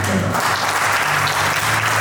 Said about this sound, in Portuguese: Um aplauso, né?